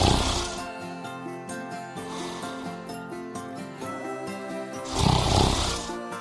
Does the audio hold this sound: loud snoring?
yes